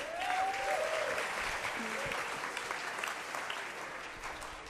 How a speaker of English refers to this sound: if we can give her a round of applause.